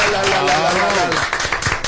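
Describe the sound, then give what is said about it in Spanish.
A burst of applause from a group welcoming a guest salsa singer, dense and steady clapping lasting a couple of seconds, with voices calling out over it. “Aplauso para él.”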